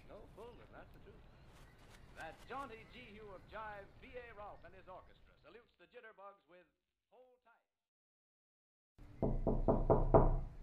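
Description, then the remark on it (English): Several sharp, loud knocks on a door land in quick succession near the end, after a stretch of indistinct talking and a brief silence. “Listen, open the door.”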